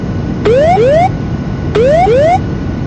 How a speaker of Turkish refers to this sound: Şimdi bu sistem size yere yakınlaştığınız zaman terrain, terrain diye size uyarı verir. Ve en sonunda da en son çare olarak size pull up diye uçağın burnunu yukarı çek ve oradan bir an önce ayrıl uyarısı verir.